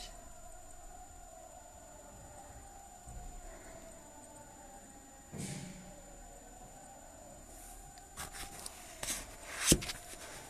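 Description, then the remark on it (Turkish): An Islamic call to prayer (adhan) drifts in faintly, a long sustained melodic voice held steady in the background, with occasional soft bumps and clicks toward the end. “Aa, şu anda duyuluyor mu ezan peki arkadan?”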